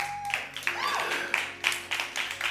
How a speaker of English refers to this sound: In Jesus' name, amen. Come on, clap those hands one more time.